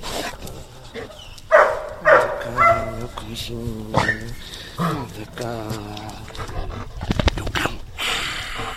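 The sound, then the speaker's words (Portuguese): A dog, Nobel, a retired guide dog at a guide dog school, lets out a few short, tonal barks and whines, with loud voiced yelps around the one- and two-second marks, mixed with people's voices and some clattering sounds near the end. “Que belo cão!”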